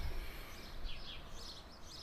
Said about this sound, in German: Und nun stell dir mal vor, so fünf Jahre in die Zukunft, du hast genau das Vogelgezwitscher, wie wir jetzt hier gerade.